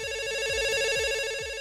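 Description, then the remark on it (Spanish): A telephone rings for an incoming call to a call-in show, a steady electronic warble with stacked tones and a rapid repeating pulse, accompanied by a low thumping beat about every half second. No one speaks. “¿Tenemos llamada?”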